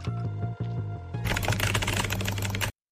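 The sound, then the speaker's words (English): Rapid, dense clatter of computer keyboard typing as someone writes an email, fairly loud for about a second and a half, following a short tonal musical passage with a steady low pulse. “What are you doing? I'm emailing”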